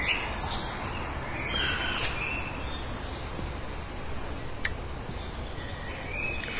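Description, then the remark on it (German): Birds chirp and sing faintly over a steady outdoor hiss, with a few brief high calls standing out now and then; no one speaks. “Wo uns alle Vogelarten, die im Hintergrund zu hören sind, nennen kann.”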